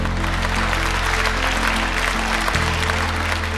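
Sustained applause with cheering fills the parliament chamber as a bill is passed, celebrated by the Scottish National Party, a dense, steady roar of clapping hands and raised voices at a constant loud level throughout.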